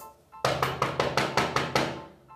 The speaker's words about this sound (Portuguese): E nesse momento, eles começaram a bater na porta.